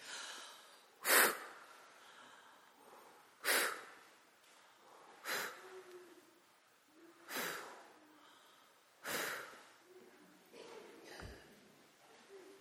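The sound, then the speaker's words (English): A series of six short, forceful puffs of breath, a breathing exercise of blowing out fingers pretended to be lit candles, evenly spaced about two seconds apart, fairly loud with quiet pauses between. “We pretend that our fingers are candles that are lit, and we're going to blow out each candle.”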